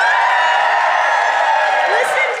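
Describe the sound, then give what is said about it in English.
A live audience at the HFA Symposium cheers loudly, a dense roar of many voices with shouts and whoops blending into a steady, bright wash of sound that holds for a couple of seconds. “Listen to that crowd. What a crowd.”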